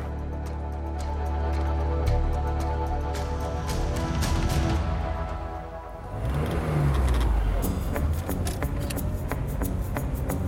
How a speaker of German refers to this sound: Juli 2001, nahe Logan, im US-Bundesstaat Utah. Jim Cantrell sitzt grinsend am Steuer seines Cabrios, während der Wind ihm ins Gesicht und in den Bart bläst.